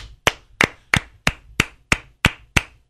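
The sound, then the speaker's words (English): Hand clapping in a steady, even rhythm, a round of applause for an Oscar-worthy performance: eight sharp, crisp claps spaced about a third of a second apart, fairly loud, with no voices. “Let's give a round of applause for an Oscar worthy performance,”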